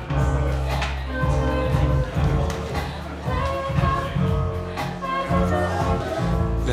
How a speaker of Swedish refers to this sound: här är väl låten vi hör i bakgrunden. Det här är ju en favorit.